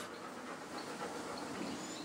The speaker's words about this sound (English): That's the panting of a dog. It's too hot.